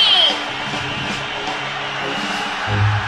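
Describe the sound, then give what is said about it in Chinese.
An audience applauds and cheers: a steady, dense wash of clapping with scattered whoops, holding at an even, fairly loud level for a few seconds, with faint music or tones underneath, welcoming the host at the opening of the Daming Talk Show (大明脱口秀). “Ladies and Gentlemen，现在是大明脱口秀时间，掌声欢迎我们亲爱的”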